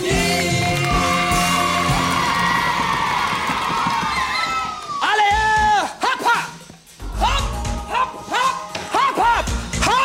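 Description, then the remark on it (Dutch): A loud audience cheers and applauds for the duo Giegel and Goochel, with high-pitched whoops, shrieks and children's shouts rising over the clapping. The noise briefly dips twice before surging back. “Applaus voor Giegel en Goochel.”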